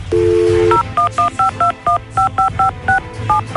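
A phone number being dialed to call someone while the caller waits silently on the line: a brief dial tone gives way to about a dozen quick, evenly spaced touch-tone beeps, each a clear two-note chirp, with no one talking.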